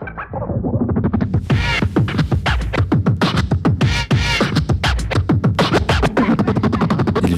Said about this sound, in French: Car le scratch n'est pas qu'un effet technique, mais bien une histoire de sonorité et de musique.